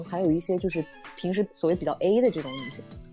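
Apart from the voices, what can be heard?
cat meowing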